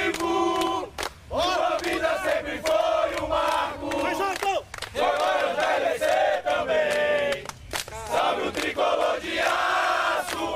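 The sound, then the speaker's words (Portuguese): A large crowd of football fans chants and shouts in unison outdoors in the streets of the small town of Itápolis, loud and continuous, with rhythmic bursts of voices echoing through the street for the whole stretch. “Foi só eles surgirem pelas ruas da pequena cidade para o barulho em Itápolis começar e tirar a paz do tranquilo leão.”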